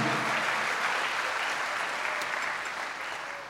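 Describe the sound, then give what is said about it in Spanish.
An audience at a church service breaks into sustained applause for the Lord, a dense, steady wash of many hands clapping that holds strong throughout and eases off slightly toward the end, with no voices standing out. “¿Cuántos dan un aplauso al Señor por eso, amado hermano?”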